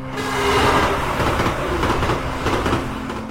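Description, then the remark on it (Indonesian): Train carriages roll steadily into a station in Bandung on a cold afternoon early in the rainy season, sounding a horn as they arrive: a loud rumble with rattling wheel noise and a faint steady tonal hum, sustained throughout with no voices. “gerbong kereta yang datang dengan klakson.”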